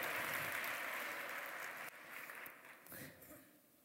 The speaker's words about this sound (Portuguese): Agora, eles podem aplaudir mesmo, foi muito legal essa.